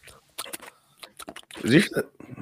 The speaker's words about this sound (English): Man, that chair is making some weird noises.